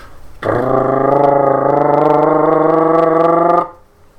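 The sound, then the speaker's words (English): A person vocally imitates the loud engine roar of a truck driving alongside a car: one sustained, steady, growling drone held for about three seconds, loud, with no talking over it. “Every really I like I like driving around with my windows with my windows down personally, when a truck drives beside me and all I, I can't even hear my music anymore. I just hear.”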